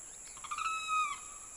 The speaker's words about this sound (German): Vor dem Itatiaia Verwaltungshaus zirpen die Zikaden, und immer wieder ertönt ein schriller Vogelruf.